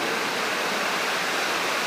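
Steady, dense hiss of rain falling, a continuous even wash of noise with no distinct drops standing out and no voices.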